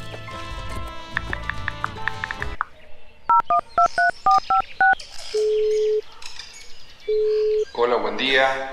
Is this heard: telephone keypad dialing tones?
yes